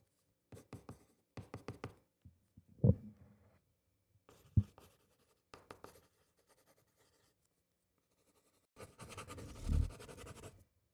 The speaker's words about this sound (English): I would put my um, my ear to the desk and get one sheet of paper and a pencil and draw. Just, just scribble.